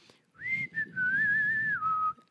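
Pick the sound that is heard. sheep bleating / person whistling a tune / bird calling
person whistling a tune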